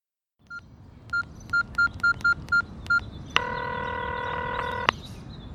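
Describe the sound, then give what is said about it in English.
Telephone dialing tones as someone places a call: a quick, even series of about eight short electronic keypad beeps, followed by a steady buzzing tone lasting over a second, all above a low background hum. “I'm standing by the window, drinking tea, enjoying the rain, and just decided to call you and share the joy with you.”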